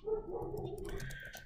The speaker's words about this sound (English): that's my dog.